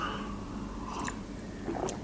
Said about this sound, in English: Ah, just a quick little sip of his beer in, in, sh- all the laughter.